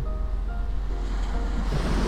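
Steady ocean surf washes continuously at the shore of the seaside, a broad low rumble with some wind buffeting the microphone, even throughout, with no voices, recorded by the sea after a walk and a short meditation.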